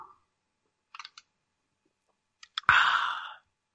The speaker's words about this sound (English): I'm going to take a sip of my beverage. Give me just one moment.